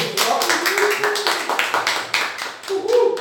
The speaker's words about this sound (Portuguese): Palmas